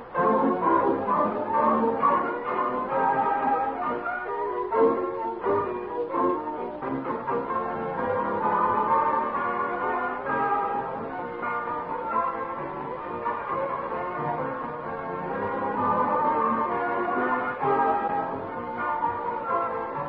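An orchestra plays a lively song, with full, sustained harmonies carrying steadily for the whole stretch at a moderate, even volume, with no talking over it.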